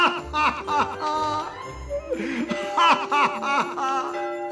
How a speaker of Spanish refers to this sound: El sonido de las campanas le sorprendió y corrió a la ventana para mirar afuera.